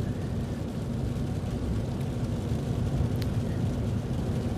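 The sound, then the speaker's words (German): Steady low rumble of road and tire noise heard from inside a Smart electric car on a test drive, a continuous dense drone with no engine roar and no voices. “Testfahrt mit einem Elektroauto - Smart”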